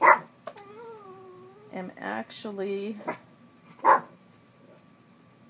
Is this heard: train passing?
no